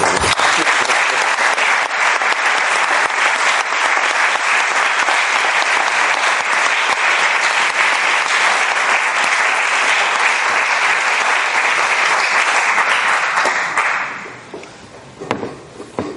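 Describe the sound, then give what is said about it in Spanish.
Loud audience applause, a dense, steady clatter of many hands clapping for about fourteen seconds before quickly thinning out to a few scattered claps. “Anem molt bé de que necesitamos es un fuerte aplauso.”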